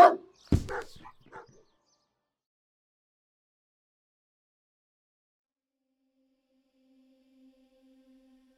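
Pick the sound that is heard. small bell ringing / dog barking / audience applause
dog barking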